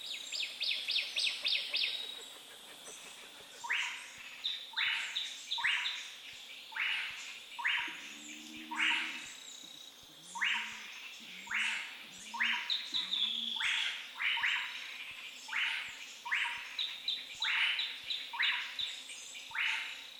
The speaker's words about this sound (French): à 1500 mètres d'altitude, enfin entre 1500 et 2000 mètres d'altitude, dans une forêt tropicale des nuages, euh, avec des fougères arborescentes, où là se faufile une myriade de petits oiseaux, d'insectes. Donc on va écouter un petit exemple.